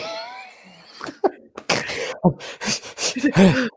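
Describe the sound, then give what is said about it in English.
Loud heavy breathing: a run of harsh, breathy huffs in quick succession, some with a voiced, groaning edge, after a brief wavering vocal tone at the start. “lot of breathing, breathing.”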